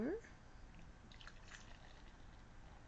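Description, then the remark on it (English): Pelican Brewing Kiwanda Pre-Prohibition Cream Ale, a beer, pours into a glass with a soft, steady liquid rush and faint fizzing, fairly quiet, lasting a few seconds. “And the pour.”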